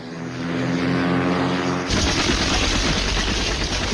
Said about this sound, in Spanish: Bigfoot 6, Paloma 1-3. Los jets llegarán en unos 30 segundos. Alerte a sus hombres allá abajo. Esta será una gran explosión.